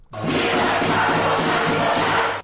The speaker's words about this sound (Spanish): Y pues en serio un aplauso para ustedes. Sí, señores. Un aplauso.